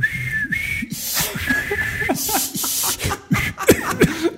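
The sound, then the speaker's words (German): A thin, steady whistled tone hovers over breathy noise, a person whistling in imitation of a recorder, with short voiced murmurs and laughter-like bursts mixed in. “Und es ist nicht die Geige, sondern, sondern es ist das klassische Einstiegsinstrument par excellence, die Blockflöte.”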